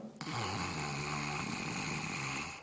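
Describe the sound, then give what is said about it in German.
A steady, raspy snoring-like rumble drawn in on one long breath during Brahmari yoga breathing practice, fairly loud, lasting a couple of seconds with no talking. “Noch eine Sache, wenn es dir schwer fällt, beim Einatmen diesen Schnarchklang zu machen”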